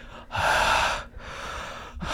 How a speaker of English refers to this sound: with his fucking heavy breathing